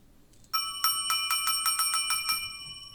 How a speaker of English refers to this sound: It's a different bell. I don't know if you saw that. The app's got three bells. It's pretty dope.